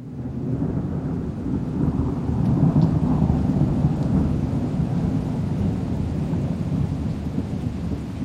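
Heavy tropical rain pours down steadily on a man during a sea crossing, with a deep, continuous rumble of thunder rolling underneath, loud throughout with no voices.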